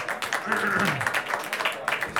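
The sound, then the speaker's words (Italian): An audience breaks into steady applause, a dense, continuous patter of many hands clapping for about two seconds, with a voice briefly audible over the clapping. “un applauso che sono venuti dal salotto anche da poco.”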